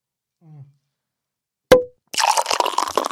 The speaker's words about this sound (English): That's another sip. I just bought you a double. You're welcome.